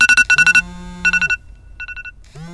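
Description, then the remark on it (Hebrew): A mobile phone sounds an alarm notification set for eight o'clock as a party reminder, a bright electronic melody of rapid pulsing tone bursts in short repeated phrases, loud, with a low hum underneath and no voices. “פתאום, הטלפון שלי צלצל ומרוב בהלה הפלתי אותו לרצפה.”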